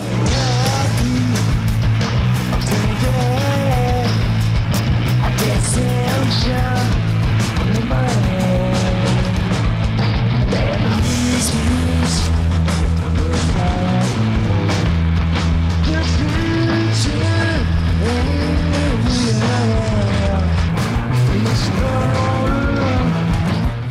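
A loud, dense grunge rock song with heavily distorted guitars, a steady driving bass line and a wavering sung vocal, playing continuously at full volume throughout.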